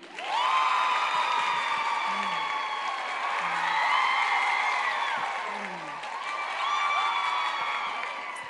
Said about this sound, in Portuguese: Nossa, palmas.